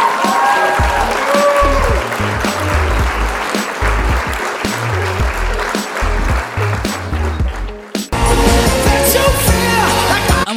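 Loud, sustained audience applause fills the whole stretch, with a thumping musical backing underneath and a brief dip before the clapping and music surge back.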